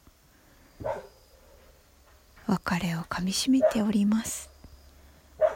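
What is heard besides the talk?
dog whining and barking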